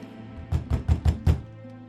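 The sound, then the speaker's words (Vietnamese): Five heavy thuds of a woman's fists pounding on a hospital door in the quiet of late night, landing in a quick, fairly even burst with a deep booming low end, then stopping. No voices. “Tiếng đập cửa nghe càng inh ỏi giữa đêm khuya tĩnh mịch, nhưng cánh cổng vẫn không hề suy chuyển.”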